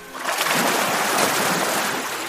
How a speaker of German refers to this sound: Mit seiner riesigen Schwanzflosse schlägt es gerne auf das Wasser, dann spritzt und schäumt es gewaltig.